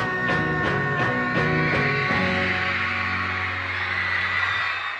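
A band finishes a song with a few loud, ringing chord hits, then a dense, high-pitched wash of audience screaming swells and holds steadily to the end.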